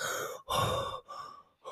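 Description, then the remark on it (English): A voice imitates a masked movie character's heavy, rasping breathing through the mask, likened to Darth Vader: three loud, hissy breaths in and out with short pauses between, alone, with no talk. “And, and I like I like how he kind of has a thing of like Darth Vader, where you can in some scenes you can hear him breathing through the mask, like.”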